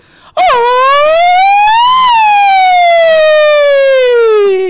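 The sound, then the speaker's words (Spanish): A single loud, high-pitched, typical classic mariachi grito: one long sustained wailing shout that swells upward, then slowly glides down over about four seconds, alone with no talking. “pues espero inspirarlo yo con ese grito de mariachi típico, clásico.”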